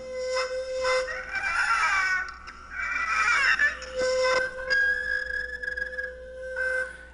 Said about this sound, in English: I got combs. They're the only combs that I own. They're all mounted on my instrument. Um, I can actually do all sorts of things. I can play with a, a violin bow. I don't have to use the chopsticks, so we have this sound.